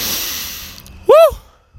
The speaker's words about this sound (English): breathing in this good ass prana, baby.